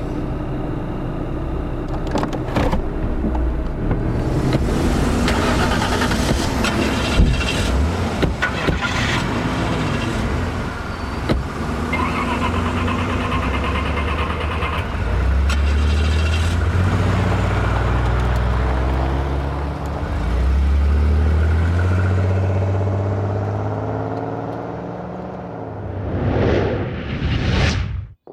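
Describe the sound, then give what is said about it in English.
The engines of a convoy of vehicles rumble steadily and loudly for nearly half a minute, with low revving drones, passing whooshes and a few metallic clanks, like heavy vehicles moving together. “The convoy is on the move.”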